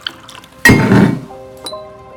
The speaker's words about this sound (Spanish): llena unos vasos de chupito y alza uno de ellos para brindar.